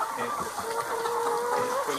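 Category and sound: bird, chickens clucking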